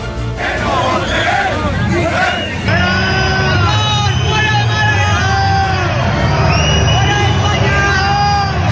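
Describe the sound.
A loud crowd of protesters in Málaga, Spain, booing and shouting at acting Spanish Prime Minister Pedro Sánchez, with many overlapping voices forming a dense, continuous roar and rising and falling jeering calls throughout.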